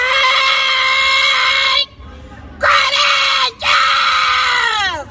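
A woman, a Corinthians football fan, screams loudly in three long, piercing shrieks: a sustained cry, a brief pause, then two more strained screams that bend and waver in pitch.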